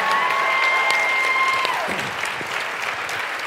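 audience clapping

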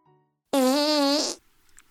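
fart sound effect

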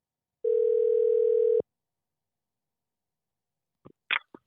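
telephone ringing tone

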